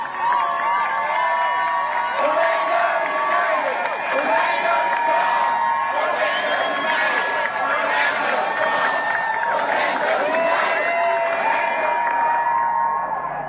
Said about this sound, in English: And as soon as they packed their signs up and they started walking, every all of us went like this and said, you know, go for it. And the cheer and everybody just erupted. It was it was an amazing sound just to hear everybody erupt.